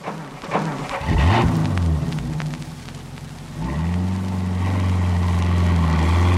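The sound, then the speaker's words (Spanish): A large cargo truck with its lights on comes toward them, its heavy engine rumbling loudly, the deep drone shifting in pitch as it revs and then holding a steady, powerful roar as it grows nearer. “con la furia de un animal asesino, súbitamente vieron venir hacia ellos un enorme camión de carga con las luces encendidas, dispuesto a aplastarlos.”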